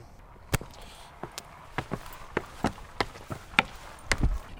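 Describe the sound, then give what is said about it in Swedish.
Footsteps climbing up a small, relatively low bird-watching tower, about four metres high, at Lillängarna in Rävsby, Lovisa: about a dozen sharp, knocking steps at an uneven walking pace, fairly loud over a faint outdoor background, with no talking. “Och det tog ju inte så lång tid att klättra upp här.”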